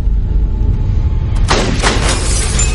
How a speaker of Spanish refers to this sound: Rompió la ventanilla.